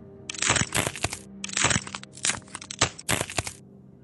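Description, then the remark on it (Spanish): Loud bone-like cracking comes in a series of gritty crunching bursts, about five in quick succession, like neck bones being slowly twisted and popping, with no voices. “Oía el sonido de sus huesos, sus tendones, un sonido de muerte”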